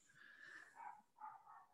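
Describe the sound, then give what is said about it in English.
An excited dog gives a string of high, whiny barks and yelps in a few quick bursts, somewhat faint, with no one talking. “you hear my dog just freaking out because he knows”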